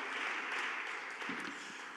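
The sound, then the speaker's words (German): A crowd applauds steadily for a couple of seconds to thank the event organizers at an audience gathering that is also livestreamed, a dense wash of many hands clapping at once, with a faint voice briefly rising through it. “Das eine ist, also vielleicht erstmal ein Applaus”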